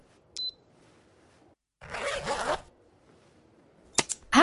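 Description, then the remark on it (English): A finger-stick lancet kit used for blood glucose testing to manage type 1 diabetes: a short click with a brief high beep, a second-long zipper-like rasp, then a sharp spring-loaded snap of the lancet, with no talking. “This is the sound of managing your type 1 diabetes using finger sticks.”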